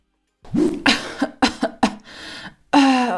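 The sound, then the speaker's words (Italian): A person coughs, a rapid run of four or five harsh, chesty coughs, followed by a loud, strained vocal groan at the end. “Ho oh, mal di gola, tosse, un raffreddore e persino mal di pancia.”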